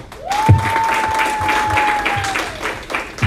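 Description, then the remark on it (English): A crowd bursts into steady applause, many hands clapping loudly together for a few seconds, with a sustained tone from a microphone or instrument ringing beneath it. “Can we clap the right for you?”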